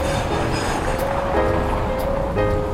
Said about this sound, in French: Et là nous longeons la rue principale il y a beaucoup de voitures parce que c'est le début de la journée, donc les gens arrivent pour travailler, donc il y a un balai de voitures assez incessant.